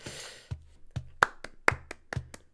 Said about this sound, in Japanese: なんとなく拍手してみましたけれども